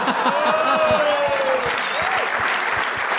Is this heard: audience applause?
yes